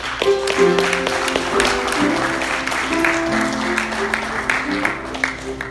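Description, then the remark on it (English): An audience claps along at a preacher's invitation during a sermon, a dense, continuous patter, with sustained organ-like tones and voices mingling underneath throughout. “If you've experienced God's sweet forgiveness, I want you to clap with me right”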